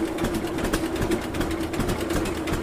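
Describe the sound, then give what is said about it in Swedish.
A slow, steady two-cylinder tractor engine chugs at a fair, both cylinders audible in an even, repeating beat with a low throbbing hum underneath, no talking; the tractor, rebuilt from a wreck, comes from Linghem in Östergötland. “Ja, när man, eh, när man hör den nu här, den går så sakta, så kan man höra bägge cylindrarna seura.”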